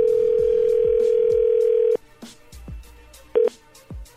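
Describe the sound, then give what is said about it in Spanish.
A steady telephone dial tone hums for about two seconds as a call is placed, then cuts off, followed by a short beep of dialing amid faint background clicks and low thumps. “A ver, vamos a marcarle por último.”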